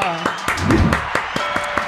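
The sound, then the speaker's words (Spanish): A short burst of scattered applause: several crisp, sharp claps at an uneven pace over about two seconds, with a faint murmur of voices underneath. “A un aplauso allá.”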